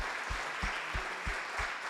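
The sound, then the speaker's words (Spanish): An audience applauds in a dense, steady wash of clapping, with a regular low thump underneath, about three beats per second, throughout the short burst. “Pero vamos a darle un aplauso a nuestras jovencitas.”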